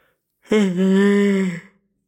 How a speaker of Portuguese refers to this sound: Ah, primeiro um espirro e agora um bocejo.